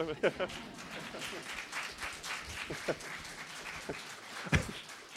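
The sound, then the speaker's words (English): A Unitarian Universalist audience applauds, many hands clapping in a dense, irregular patter that holds steady for several seconds, with a few sharper claps standing out and faint voices mixed in. “I'm always thrown off by clapping, but please, you can clap.”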